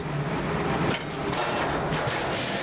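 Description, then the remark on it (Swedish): A lifeboat slams into the water surface during a test, bouncing and even flipping after cutting the surface: a loud dense roar of rushing, churning water with a sudden shift about a third of the way in, continuing steadily with no voices. “För kolla in nedslaget under det här testet.”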